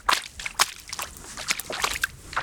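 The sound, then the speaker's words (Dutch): Footsteps slosh through ankle-deep water on waterlogged farmland, each step a wet splash in a steady walking rhythm, several in a row with small drips and swishes between them and no voices. “sta ik ehm, nou, tot aan mijn enkels in het water.”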